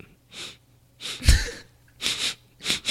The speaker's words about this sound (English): Get those sniffs in for the sound mixing Oscar or sound editing. Fresh cut grass.